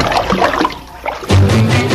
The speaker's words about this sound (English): It's a shower transition.